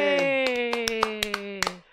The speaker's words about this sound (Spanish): Este se emocionó ahora, como ahora aplaude, se emociona.